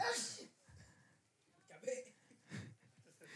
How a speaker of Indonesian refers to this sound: ya bersin lagi dia.